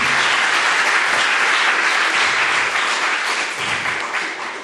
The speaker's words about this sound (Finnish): Voidaan antaa aplodit täältä näin sinne.